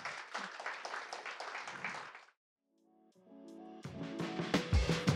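An audience at a meeting claps in a dense, steady burst of applause for about two seconds, then it cuts off; after a brief pause, tonal music fades in and builds.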